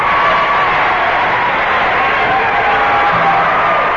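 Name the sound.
crowd cheering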